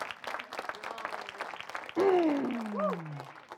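An audience claps in a dense, steady wash of applause; partway through, a man's loud, emphatic voice rises over the continuing clapping.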